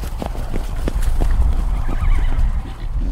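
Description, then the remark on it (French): A horse whinnies with a wavering, high cry while hooves clop in uneven strikes over a low rumbling background; there is no talking. “des porcs, des moutons, des poules et même des chevaux”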